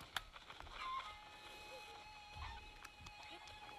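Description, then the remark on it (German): A chicken that is carrying the speaker downward clucks in a few short, scattered bursts over a steady hum of tones in the background, with some faint voice-like sound mixed in, at a moderate level. “Jetzt habe ich einen Huhn gefunden, wo mich runterträgt, lol.”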